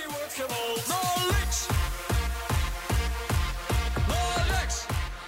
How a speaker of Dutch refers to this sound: Ja, Oranje-invasies denk ik. Dus... Eh, aan hoorders, mannen die achter een dubbeldekkerbus aanlopen. Terwijl ze op eh, deze muziek, moet je maar luisteren, over straat lopen.